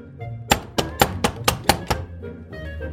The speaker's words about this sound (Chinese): 这时候有人敲门